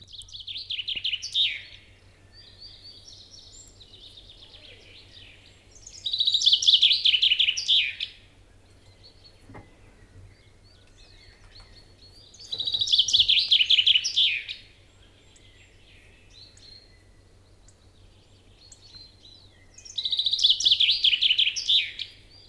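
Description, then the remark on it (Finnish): A chaffinch sings three loud, bright song phrases about seven seconds apart, each a rapid descending trill ending in a flourish, with softer background birdsong and a low steady hum between. “ja kuunnellaan peippo?”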